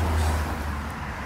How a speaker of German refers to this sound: Das ist nicht der Rhein, der Rausch, das sind die Autos.